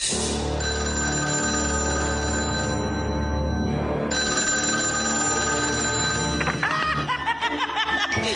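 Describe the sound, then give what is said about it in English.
A telephone bell rings loudly and continuously, its bright tone briefly thinning midway before resuming, with snickering laughter breaking in near the end. “Boy, did you get a wrong number? Leave your message at the sound of the shriek”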